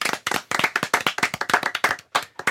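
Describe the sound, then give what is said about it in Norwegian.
A small group at an NRK editorial meeting claps their hands in a quick, uneven patter of sharp, bright claps for a couple of seconds, with a short gap before the clapping picks up again briefly. “Applaus, eller?”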